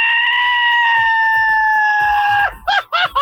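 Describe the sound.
A loud Mexican grito given on Mexican Independence Day: one high yell held steady for about two and a half seconds, then breaking into a few quick, warbling whoops, with no talking around it.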